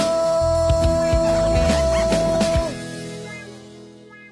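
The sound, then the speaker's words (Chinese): A song plays with a steady sustained tone, punctuated by a few short, sharp hiccups that are part of the song recording, before the music fades out. “刚才那歌是，刚才那个打嗝是歌里有的，不是我。”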